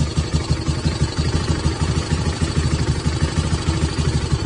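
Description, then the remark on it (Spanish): A motorcycle engine idles steadily outside a house as people try to get it started, its low, throbbing rumble pulsing rapidly and evenly throughout, moderately loud, with no voices present. “no he escuchado la moto, ¿vos la escuchaste”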